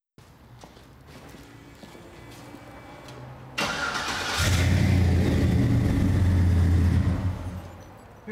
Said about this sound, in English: how did you just start that? Yes, automatic. You know, it's a new technology. I can start 100 miles from here. Is this your car? yes, it's, my, it's my, It's my dream car. I love this car.